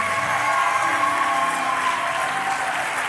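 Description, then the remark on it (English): A crowd applauds steadily to welcome Representative Mayra Flores, a dense wash of many hands clapping at once with a few cheers mixed in, loud and sustained for a few seconds without any talking over it. “Give her a great big hand clap.”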